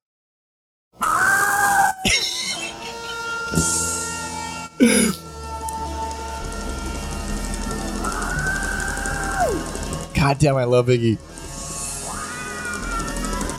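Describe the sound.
A chaotic noise-rock finale, the closing track of an album, blares loudly and without letup: screeching, wailing horns and howled vocals glide and squeal over a dense, distorted wash, with sudden stabs and bursts throughout.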